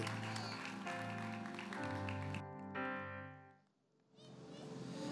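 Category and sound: crowd, applause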